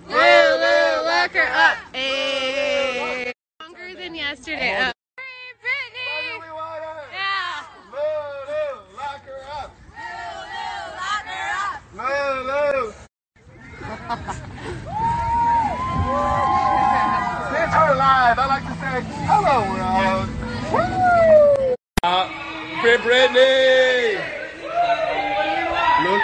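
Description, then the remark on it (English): A Free Britney rally crowd of over 60 people fills the scene with overlapping chatter, shouts and bursts of cheering, many voices talking at once in a loud, continuous hubbub with a few brief pauses. “We got over 60 people here with us.”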